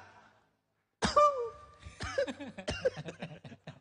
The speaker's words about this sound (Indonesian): batuk, iya. Ngeri ya. Ngeri. Batuknya suka bebet ya. Apa sing batuk sampai keluar riaknya.